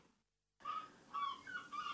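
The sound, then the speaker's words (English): Seagulls squawk outside a room high up in a university tower in Galway, in three or four harsh, repeated calls after a brief moment of silence, fairly faint, with no talking. “we're here in a room in NUIG, high up in the tower, with the seagulls squawking outside.”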